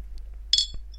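A bright glass clink rings out with a shimmering high tone, followed by a softer tap and a faint second chime, as glasses are touched together in a toast to a one-year anniversary in a Berlin hotel room, over a low steady hum.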